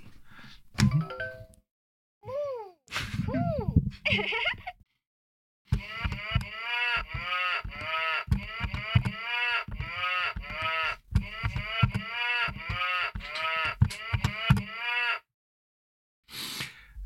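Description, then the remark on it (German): A keyboard plays a steady melody using sampled cow moos, each note a short, nasal bovine lowing at a different pitch, following a few scattered moo sounds at the start. No one speaks. “Was war das für ein Tier? Es soll eine Kuh gewesen sein.”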